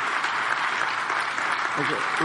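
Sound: audience clapping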